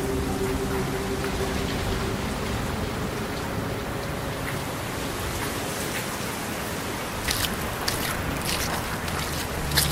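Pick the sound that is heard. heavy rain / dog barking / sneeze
heavy rain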